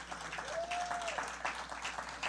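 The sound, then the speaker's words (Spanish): A crowd claps for the Lord in a dense, steady burst of applause, many hands patting at once, with a faint sustained tone briefly rising beneath the clatter midway. “Amén, dele un aplauso al Señor fuerte.”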